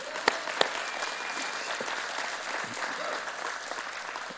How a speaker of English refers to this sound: If you are that vessel, why don't you give Jesus a hand clap of praise?